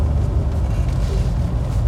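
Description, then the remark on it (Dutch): Steady, heavy rumble of trucks moving through busy traffic, a continuous low engine drone with no pauses and no voices. “Oh, vrachtwagens. die gaan niet door de wasstraat, hè?”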